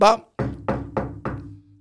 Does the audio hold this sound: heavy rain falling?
no